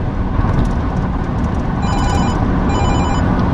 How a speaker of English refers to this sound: Well I got a phone call coming in. But I'm going to let it go. Because I'm driving.